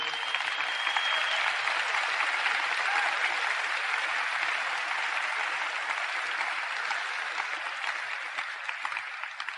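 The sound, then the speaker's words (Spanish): An audience bursts into loud, sustained applause for the 'diamonds' who invited the speakers, a dense wash of clapping that holds steady for several seconds before easing slightly toward the end. “Yo quisiera primeramente, como un paréntesis, pedir un, fuerte aplauso a sus diamantes que tuvieron la confianza de invitarnos y hacernos”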